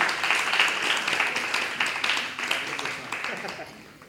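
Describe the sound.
Audience applause: a dense, steady wash of many hands clapping, fairly loud at first and gradually thinning and fading toward the end, with a voice faintly mixed in.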